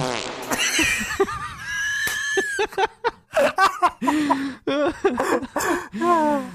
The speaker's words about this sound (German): ähm, Moment, nochmal kurz furzen.